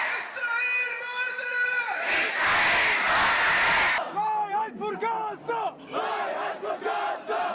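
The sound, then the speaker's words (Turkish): A large crowd at a demonstration in support of Palestine, protesting Israeli attacks on Gaza, chants and shouts in unison, a loud sustained collective roar rising in the middle before breaking into rhythmic, repeated call-like chanting. “Birçok ülkenin başkentinde yüz binlerce kişi Filistin'e destek gösterileri düzenledi.”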